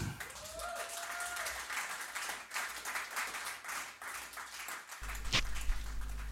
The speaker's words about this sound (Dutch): Applaus voor